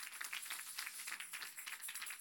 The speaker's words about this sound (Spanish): Denle un aplauso, aleluya.